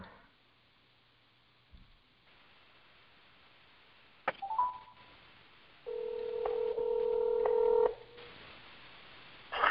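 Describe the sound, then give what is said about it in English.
Electronic telephone keypad tones as a phone call is placed: a short beep, then a steady two-note tone holding for about two seconds, clear over a faint line hiss, with no one talking. “He thinks I'm calling his cell phone.”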